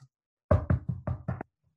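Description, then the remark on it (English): A quick, even run of five heavy clacks of typing on a mechanical keyboard. The hits are loud and thumpy, with no voices, and silence follows them. “same with like I've got a me- mechanical keyboard, so it when I type it's like”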